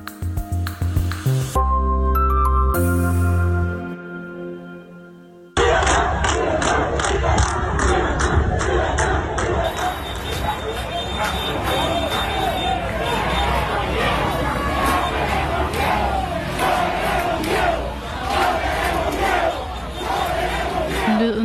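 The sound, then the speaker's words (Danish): Tens of thousands of protesters chant in unison in the streets of Cuba, rhythmic shouted cries of "libertad" demanding freedom repeating over a dense roar of voices, preceded by a few seconds of music-like tones before the chanting swells in loudly. “Her er 10.000 af mennesker, der råber libertat, libertat i Kubas gader.”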